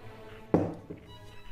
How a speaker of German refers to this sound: So, und jetzt werden die Kiele in ein Glas Wasser gegeben